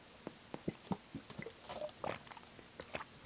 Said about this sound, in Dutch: Ah, dat was weer mijn slokje energy. AA ah, ah, energy. Ik weet niet of dat echt energy is of niet.